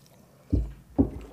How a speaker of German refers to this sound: Prost auf das. Prost. Wir stoßen gerade mit unseren Punschhefeln an.